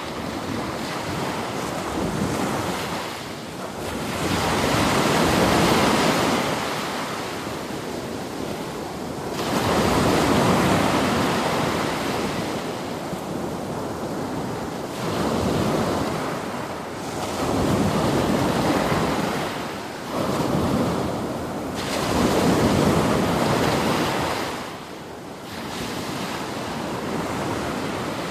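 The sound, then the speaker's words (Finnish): Ocean swell breaks on a sandy beach on the island of Crete, beside the village of Latanias, before sunrise with no wind. Each wave comes in at an angle to the shore and builds into a loud, full roar, then eases off, repeating roughly every five seconds, with no voices. “Siinä siis maininki iskee rantaan Kreetan saarella. Ja kun se on maininki, niin siinä ei ole tuulta.”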